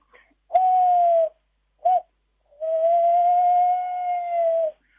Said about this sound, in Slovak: Ono to tak dosť strašidelne tá sova lesná znie, že to je také vábenie, ale je to nádherné, poteším sa vždycky tomu.